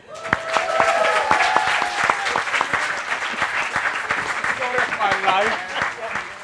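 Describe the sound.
An audience claps steadily for several seconds for the last panel participant, a dense, lively patter of many hands, with a few voices and cheers rising faintly through the applause.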